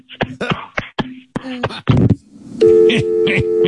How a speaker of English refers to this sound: Hung up the phone. Shit. His ass meat actually hit the phone and hung it up.